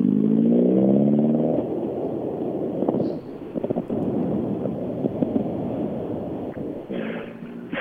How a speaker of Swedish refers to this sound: Golffyrorna kommer på rad här nu.